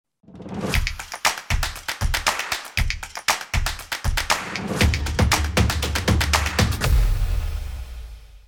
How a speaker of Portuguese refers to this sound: Roda a vinheta!